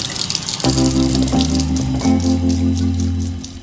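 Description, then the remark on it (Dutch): Water runs steadily from a tap in a lab, a continuous hissing splash with a low, humming drone beneath it that shifts pitch a couple of times, as if the flow changes while hands are washed. “En altijd de handen heel goed wassen.”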